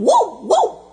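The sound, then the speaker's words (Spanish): A dog barks twice in quick succession, two loud, sharp woofs with a rising-and-falling tone, with no voices or other sounds around them. “Eso es un perro.”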